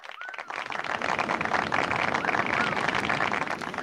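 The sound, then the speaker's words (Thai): A crowd bursts into sustained, dense clapping that starts abruptly and holds steady and loud throughout, with faint whoops or whistles mixed in and a murmur of voices underneath. “ขอมอบเสียงปรบมือให้”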